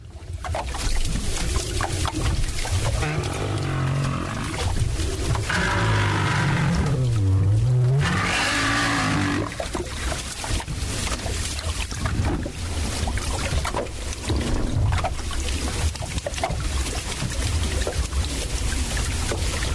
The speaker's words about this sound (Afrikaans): Nou jy al gewonder hoe klink 'n Noordkaper walvis? Ons het klank op YouTube gekry.